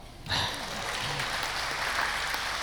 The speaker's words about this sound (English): Yeah, it's incredible. I, you can clap.